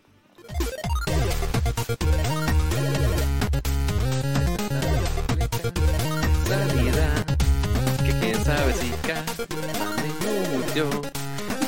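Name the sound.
background music playing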